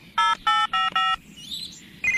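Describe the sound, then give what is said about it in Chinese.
Winnie dials Bob the Builder on a telephone keypad: four short, bright electronic beeps in quick, even succession, followed by a softer warbling tone and one more beep starting at the end. No one speaks. “我拿了巴布要用的说明书，我最好打电话告诉他。”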